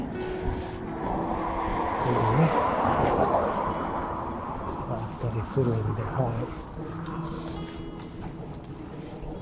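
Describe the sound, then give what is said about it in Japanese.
A bicycle squeaks steadily while being ridden in a seaside area, its high rhythmic creaking repeating under a man's talking, with wind and road noise in the background. “じゃあ一回ちょっと音うるさいんでね、もうキーキーキーって言って今日うるさいんで一回止めようと思いますが、ほんと残念な、この音がなければね、ずっと話してられるのになとは思いますが。”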